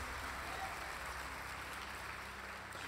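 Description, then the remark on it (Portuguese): A crowd claps steadily for a few seconds, a dense, continuous wash of applause from many hands, fairly loud with no voices standing out, given as a round of applause for Jesus. “Uma salva de palmas para Jesus.”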